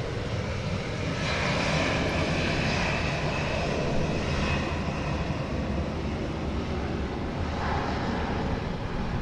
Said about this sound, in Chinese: 等一下哦，等这个飞机走。